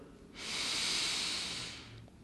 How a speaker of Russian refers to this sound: Отметьте, как дыхание проходит сквозь вас. Вдох и выдох. И еще один вдох.